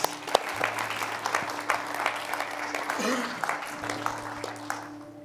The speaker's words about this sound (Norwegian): og gi han en applaus.